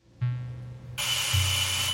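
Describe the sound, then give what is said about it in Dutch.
A doorbell goes off as a vet arrives to collect a cat: a low electric hum starts, then a loud, harsh buzzing ring joins in and holds steadily until the end, with no one speaking. “De bel ging notabene op tijd en Marina deed de deur open.”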